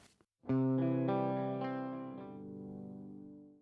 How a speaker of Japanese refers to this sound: CD を作ったということでね、あの、ちょっと、頂戴したのでね、ぜぜひとも一曲流したいなと思っております。聴いてもらいましょう。